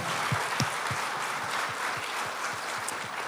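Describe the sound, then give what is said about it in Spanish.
A crowd applauds steadily for a group that had been with them, a dense wash of many hands clapping, with a few louder, evenly spaced claps punching through the rhythm throughout, no talking. “Podemos damos un fuerte aplauso entonces, give them a, hand?”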